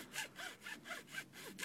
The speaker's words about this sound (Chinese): 爸爸用锯子把头锯短，然后开始用刨子刨木头。